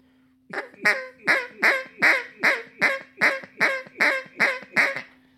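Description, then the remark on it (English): A duck call blown with a hold on the reed, letting off the back pressure, in a fast, even series of about eleven loud, raspy quacks, each sharp at the start and trailing off, with a faint steady hum underneath and no talking. “And all I'm doing is, is basically I'm going, and I'm trying to see where that reed holds down at a good call whenever you do that and you let off on it, you let that back pressure go.”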